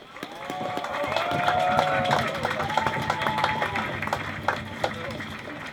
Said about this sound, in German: Großen Applaus!